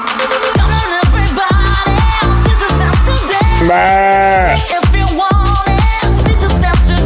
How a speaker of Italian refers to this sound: C'era una pecora che passava per lo studio così. Beh. Eh, non ho capito qui dentro lo zoo, io, boh. io parlo e passa una pecora.